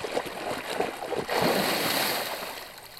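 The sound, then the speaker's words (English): Thrashing water sound effects from a scene of the 1975 film Jaws, as a man swims up, in the reissued 7.1 surround soundtrack: water thrashes and splashes continuously, a churning, noisy wash that surges louder partway through and keeps going steadily, fairly loud, with no voices. “That that the chuckle has been removed and replaced with just thrashing water sounds.”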